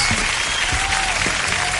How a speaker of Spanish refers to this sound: Eh, de hecho, el, e, este aplauso a nuestro público es para, para todo el equipo del Teprimos.